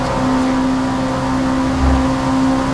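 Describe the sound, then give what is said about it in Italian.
A racing car's engine drones steadily at a constant pitch, and near the end a brief, deep rumbling burst sounds as the tyres run over the track kerbs. No one speaks. “entrare sentite i bordi pista”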